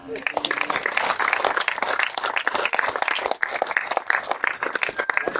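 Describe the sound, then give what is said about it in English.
An audience at the Skyline Drive-In breaks into sustained applause after a story told by Sammy Terry, a dense, steady wash of many hands clapping for several seconds at an even loudness, with some indistinct voices mixed into the crowd noise. “Now you may applaud.”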